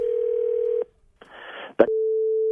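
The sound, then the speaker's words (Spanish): A steady telephone line tone hums for under a second as a call is dialed, stops, then a burst of static and a sharp click lead into the same tone again, clear and fairly loud with no talking. “Ya estamos marcando y escuchen lo que sucedió, campeones.”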